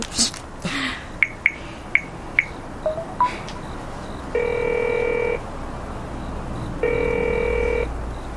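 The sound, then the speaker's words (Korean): A phone keypad beeps out a number in a quick series of tones as an outgoing call is placed, then a steady ringback tone buzzes twice with a pause between, heard over low background noise. “문주 씨한테 전화할까?”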